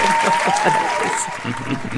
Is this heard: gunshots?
no